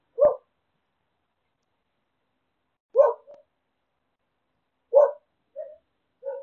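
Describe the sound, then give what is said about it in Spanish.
A female dog barks on the street in short, sharp bursts spaced a few seconds apart, each followed by softer whimpering yelps, with silence between the sounds. “En fin, continúo después de un pequeño percance callejero con mi perra”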